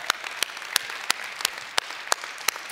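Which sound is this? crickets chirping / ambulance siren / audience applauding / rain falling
audience applauding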